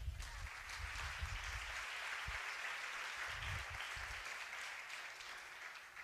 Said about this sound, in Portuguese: Obrigado, minhas assistentes de palco. Salve de palmas para elas.